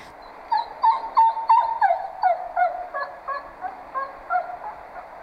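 A dog whines to get attention from its owner or mother, in a steady run of short, high-pitched whimpers, about ten in quick succession, moderately loud, with no one talking.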